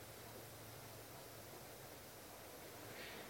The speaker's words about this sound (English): Yeah, it's raining.